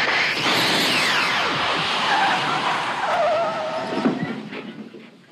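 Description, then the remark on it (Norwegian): A DeLorean car in the film Back to the Future, returning from a test drive, skids hard to a stop outside a shopping mall. Its tires screech in long, loud, wavering squeals over a rumbling engine, and the noise trails off near the end with no voices. “Ja, her hørte vi et klipp fra tidlig i eh, Tilbake til fremtiden, Back to the Future, der eh, en DeLorean kommer eh, tilbake fra en testtur i fremtida.”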